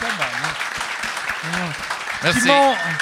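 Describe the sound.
An audience claps steadily, a dense crackling patter of many hands, while voices talk and exclaim over it; the clapping swells briefly louder near the end.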